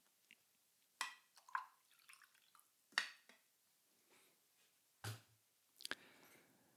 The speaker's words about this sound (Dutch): Ik ga even wat eh, koffie inschenken hoor.